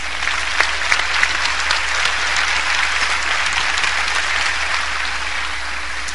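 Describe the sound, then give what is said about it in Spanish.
Sustained applause from a sizable audience for five girls, steady and loud throughout, a dense wash of many hands clapping with no pauses and no voices standing out. “Vénganse, vamos a darles un aplauso a estas cinco chicas.”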